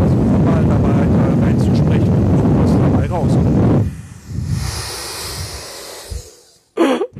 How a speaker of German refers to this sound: Dann schmeiße ich einmal den Föhn an und gucke, was dann passiert. Und am Schluss föhne ich noch einmal die Mikrofonkapsel direkt an.